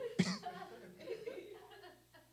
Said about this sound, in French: Avec le talkie là. il vient de parler. Il vient de rentrer. Il vient de respirer. Ah, il vient de tousser.